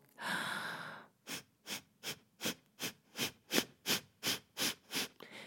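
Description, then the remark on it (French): A long breath in, then about a dozen short, sharp puffs of air forced out through the nose with the mouth closed, a breathing exercise to clear the nose, in a quick, steady rhythm, fairly loud, with no talking. “Alors, chaque matin, vous pouvez faire des exercices comme prendre une inspiration et expirer par petits coups et par le nez, en fermant la bouche, pour faire sortir ce qui est pris dans le nez.”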